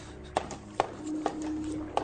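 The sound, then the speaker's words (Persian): Oars knock and dip on the sea at a slow, steady rowing pace, four distinct strokes over a faint low hum, moderately loud, with no voices. “صدای بارو زدنشو میشنوم از این طرف بیا کی هست؟”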